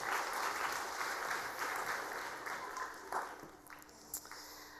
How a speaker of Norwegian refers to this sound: Tusen takk. Kan ikke han få en applaus? Han er så flink!